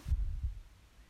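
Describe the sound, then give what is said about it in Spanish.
A soft, deep heartbeat thumps twice in quick succession, low and muffled, followed by a faint hum as the beat fades, with no voices present. “tratando de observar el latido de tu corazón.”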